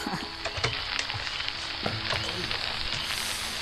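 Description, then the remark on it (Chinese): Heavy rain pours down in a dense, steady hiss, with crackling spatters and a few sharper drops scattered through it. There is no talking. “哎呦，哎呀，好大的雨啊！”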